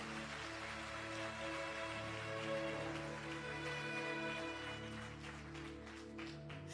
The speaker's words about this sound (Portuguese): Aplaude Jesus se essas palmas são para Ele.